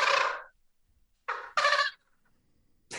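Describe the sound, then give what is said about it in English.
A person imitates a turkey gobble with their mouth, giving loud, rattling bursts: a long one, then two quick ones in a row, with another starting just as it ends. “yelp and cut and gobble with your mouth like that's just that's just awesome”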